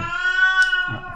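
A cat lets out one long, drawn-out, loud meow with a steady tone that holds for most of a second before trailing off into low rumbling noise.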